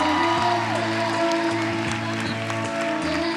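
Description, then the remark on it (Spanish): An audience applauds steadily for a few seconds for the director, a dense wash of clapping and crowd noise with a low, sustained tonal hum running underneath. “Por favor, un aplauso.”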